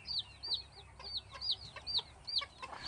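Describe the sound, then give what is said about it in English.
Chickens cluck and naturally born chicks peep as they run around, reared by their mothers at a chicken breeder's: a steady series of high, sharp chirps repeating roughly twice a second over a soft background hum, with no voices. “So th- these are these are chicks that you're seeing running around here. These are all naturally born, and they're being reared by the by the mums.”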